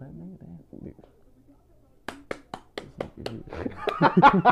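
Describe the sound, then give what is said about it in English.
A string of about seven sharp, light claps, made with one hand against a phone, taps out an even rhythm following a man's talk, and then laughter and chatter build over the last claps. “You ain't gonna use your other hand? Nah, nigga. Disrespectful as hell.”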